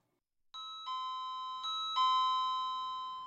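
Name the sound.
doorbell ringing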